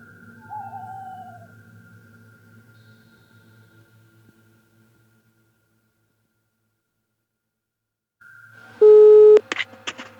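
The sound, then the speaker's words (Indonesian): A telephone line tone, placing a call to a friend, hums steadily for a few seconds and fades into silence, then returns with a sudden loud electronic beep and a few sharp clicks as the call connects. “Sekarang kita telepon dulu.”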